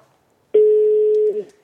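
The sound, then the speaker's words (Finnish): A phone call to an artist rings out on the line: one steady electronic ringing tone lasting under a second, fairly loud and clear, with no one picking up and no talking. “Eikö hän vastaa nyt puhelimeen?”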